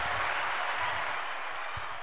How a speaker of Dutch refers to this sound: Gaaf zo'n applausje. Heerlijk, ja. Ook vooral omdat er verder niemand zit, maar toch applaus.